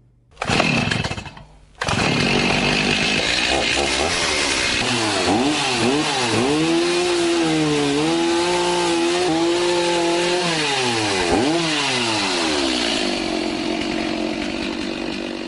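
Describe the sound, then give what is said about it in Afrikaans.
A chainsaw starts with a brief pull, then revs loudly and steadily for over ten seconds, its engine pitch rising and dipping. A woodturner is using it to cut a piece of wood shorter before turning it into a bowl. “Julle ek het jou nou sopas betrap hier met 'n kettingsaag en 'n stuk hout.”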